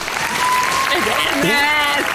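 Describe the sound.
An audience applauds steadily for a couple of seconds for an audience member, at the speaker's request, a dense, continuous patter of clapping with voices calling out and a thin sustained tone riding on top.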